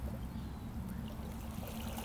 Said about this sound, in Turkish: Ama dalgalar onlar benimle.